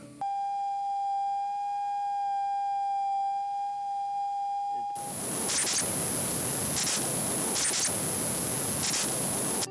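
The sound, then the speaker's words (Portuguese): Sonified recording of a healthy cell and then a diseased cell: a steady, clear mid-pitched tone for about five seconds, then an abrupt switch to loud, harsh static with rhythmic surges. No talking. “Lá também tem um vídeo com o som da célula saudável e da célula doente.”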